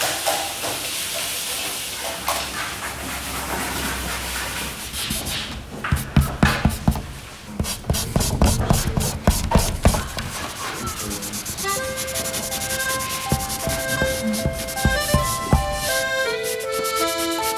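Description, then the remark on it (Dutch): Soft, steady crackling and hissing of chalk rock, with a brief cluster of sharper pops in the middle; faint tonal notes drift in toward the end. No one speaks. “Als het stil is, dadelijk hoor je dat krijt allemaal.”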